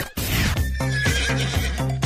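A loud horse neigh rings out in a long, quavering whinny with several pulsing breaks, heard on its own with no talking.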